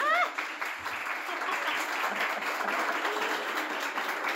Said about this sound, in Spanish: campaneras, aprovecho este aplauso inicial, hola campaneras,